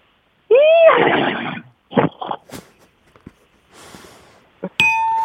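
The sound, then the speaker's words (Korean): A voice imitates a horse for radio, giving one loud, wavering, high-pitched whinny that's followed by a few short, breathy snorts. A bright ringing ding sounds at the very end. No one speaks. “그죠, 자, 그러면 첫 번째 이제 말소리 먼저 가겠습니다.”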